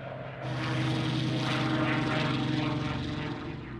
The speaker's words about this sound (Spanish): Una de las principales armas de Churchill es la Real Fuerza Aérea, junto con su impresionante avión, el Spitfire, con motor Rolls-Royce, uno de los mejores aviones de combate del mundo.